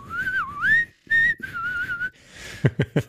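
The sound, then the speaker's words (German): A short, high-pitched melody hummed alone as a greeting to listeners, in a clear, whistle-like tone, gliding up and down over several phrases, then three quick, sharp knocks close together at the end. “mit, diesem, mit diesem schönen Gesumme äh, begrüßen wir euch.”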